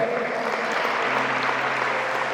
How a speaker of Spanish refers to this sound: Aleluya, dan un aplauso fuerte, Señor.